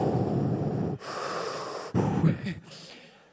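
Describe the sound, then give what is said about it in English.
A person imitates heavy, raspy breathing: three drawn-out, wheezy breaths in a row, the last one shorter and trailing off, with no words spoken. “And I remember recording the sound of my own breath on a tape and hiding it in the, in the laundry cupboard.”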